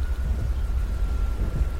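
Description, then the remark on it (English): A steady thunderstorm over a backyard, with rain pouring continuously and a deep, rumbling roll of thunder underneath, fairly loud, with no voices. “Back inside, I turned off the TV and all the lights and just soaked in the ambience of the storm.”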